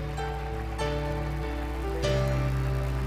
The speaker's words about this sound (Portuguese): Só aplaudir Jesus, aplauda bem forte.